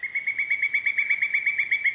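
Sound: pileated woodpecker call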